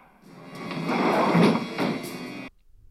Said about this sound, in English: He also has that just balling ass sliding door that reminds you of Texas Chainsaw. yeah. sliding to close on Mr. Bond.